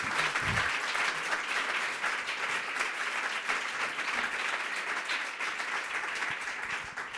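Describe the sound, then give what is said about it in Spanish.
Sustained applause from an audience, a dense, steady wash of many hands clapping at an even loudness for several seconds, with no voices standing out. “Así que, por favor, este aplauso es para, ti por este, este esfuerzo.”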